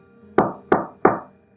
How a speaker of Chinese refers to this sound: 妹妹身后的房门突然响起敲门声。